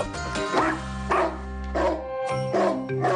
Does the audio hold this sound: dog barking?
yes